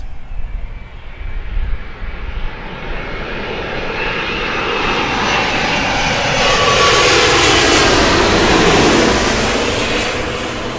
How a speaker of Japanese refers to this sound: あ、また、オール日本で全日空機ですね。クアラルンプールから来てます。はい、えボーイング787、アドリームライナーですね。来ます。